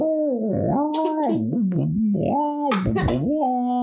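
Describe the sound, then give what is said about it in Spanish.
A voice mimics a fire chief's siren that jams after an egg lands on it, with a warbling, wavering pitch that rises, dips and stutters unevenly for a few seconds, loud. “Y se da el ruido de la sirena con huevo.”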